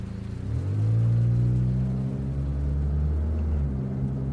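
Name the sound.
car engine driving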